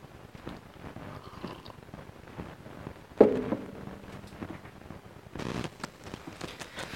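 Dogs playing in a hallway: scattered scuffling, pattering and soft thumps, a sharper bump near the middle, then a busier flurry of scrabbling at the end, all fairly quiet and with no talking.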